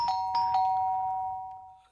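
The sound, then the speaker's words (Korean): An electronic doorbell at a home is pressed and chimes clearly, a few quick tones that blend into a sustained ringing note which slowly fades out, with no one speaking. “겨우 친구를 설득해 집으로 온 저는 떨리는 손으로 초인종을 눌렀는데요.”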